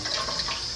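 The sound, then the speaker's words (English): A thin stream of tap water, about the width of a thin pencil, runs steadily from a faucet while dishes are washed by hand, giving an even, hissing splash with no breaks and no voices over it. “So that the stream that's coming out of the out of the sink,”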